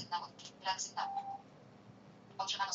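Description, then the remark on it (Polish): A GPS device gives short electronic notification beeps in a few quick bursts, one ending in a longer steady tone, followed by a pause and another cluster of beeps. The beeps signal that a satellite signal has been received and then lost again, over and over. “słyszymy, to są informacje o tym, że otrzymano sygnał u satelitów i ten sygnał ciągle gubi.”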